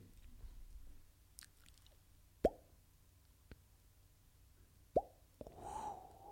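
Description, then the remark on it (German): A voice imitates a carp gulping air with wet mouth plops: two loud, hollow pops with a quick upward pitch, spaced apart, between softer clicks and a breathy hiss at the end. “Das war ein, ein Karpfen, der Luft geschnappt hat.”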